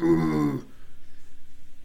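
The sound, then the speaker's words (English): A person's voice imitates a sea lion mating call: a loud, bellowing honk gives way to a softer series of rapid, rhythmic guttural pulses. “Seriously, that sounds like an elephant seal.”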